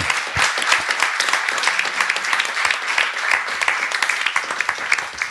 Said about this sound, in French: Merci à nos spectateurs et nos publics d'être venus ce soir. Vous pouvez vous applaudir d'ailleurs. Bravo. Merci.